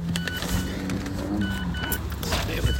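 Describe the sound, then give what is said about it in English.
Someone gets back into a car: rustling and shuffling over a steady low rumble, with a few light clicks and a brief electric whir. “while I just get back in the car here and get going.”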